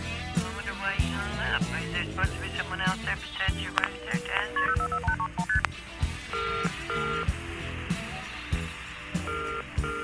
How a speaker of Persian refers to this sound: دوباره زنگ میزنه مرد گوشی رو برمیداره و میگه بفرمایید